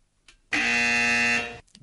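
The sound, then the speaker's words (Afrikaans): A single loud, harsh quiz buzzer blares steadily for about a second, a flat electronic tone with rich buzzing harmonics that cuts off abruptly, with no talking over it. It is a quiz contestant team's buzzer, sounded by pressing one of their buttons. “Daar sê so lekker tradisionele gonser.”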